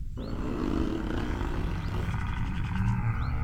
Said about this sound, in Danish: Så lød der et brøl, der fik alle bladene på træerne til at rasle.